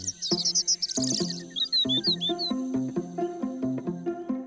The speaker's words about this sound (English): listens instead to the robin, which is singing at frequencies better suited to her ears. But her hearing is too slow to pick out all the complexities that the bird encodes within its tune.